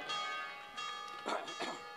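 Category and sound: signal or alarm, church bells ringing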